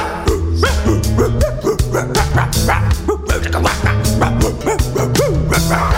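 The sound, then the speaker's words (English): Dogs bark and yip loudly in rapid, overlapping bursts that run without pause for the whole stretch, with a few higher whimpering yelps mixed in. “Get out, doggy, doggy, get out of the house.”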